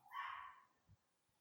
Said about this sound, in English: So again, the dogs are having a great time in the background. I can hear.